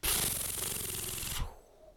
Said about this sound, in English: Are you ready? Oh yeah. Page turn noise.